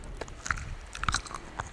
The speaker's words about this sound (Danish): Lidt afhængig af, hvor billigt tykkegummiet har været, lader det til, at man kan tykke på det i en uendelighed, eller i hvert fald til ens kæber bliver godt møre.